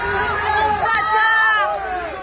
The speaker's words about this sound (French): En sortant de la préfecture, il baisse sa vitre et salue la foule pour seule réponse, un lot d'insultes.